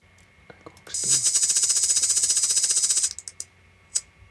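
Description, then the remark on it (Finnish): A loud, sustained high-pitched buzzing with a rapid pulsing rhythm lasts about two seconds, like a cicada's song, followed by a few short clicks and chirps. “Pitäisiköhän mun nopeasti kaskas demo tässä sulle vielä.”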